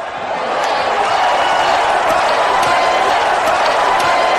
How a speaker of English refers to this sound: All right, now by round of applause.